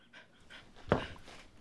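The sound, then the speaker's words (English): A dog named Noah pants in quick, breathy bursts, with one sharper huff in the middle, fairly quiet overall and with no talking. “So who's I, panting? Somebody's excited about it.”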